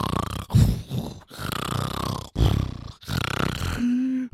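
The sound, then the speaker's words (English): A voice loudly imitates snoring with several rough, rasping snorts and drawn-out groaning breaths in a broken rhythm, ending on a steady humming drone. “and then I was woken up at six a.m. by this guy snoring the loudest fucking noise I've ever heard.”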